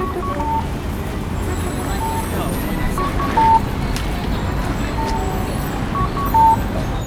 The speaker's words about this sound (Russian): наш звукорежиссер нашел для вас звуки Токио